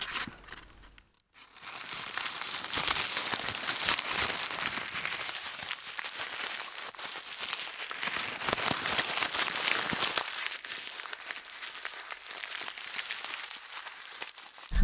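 Paper is crumpled continuously for about thirteen seconds after a brief pause while being moved around a listener's head for a binaural listening demonstration in an anechoic chamber: dense crackling rustles close by that shift position, with no voices.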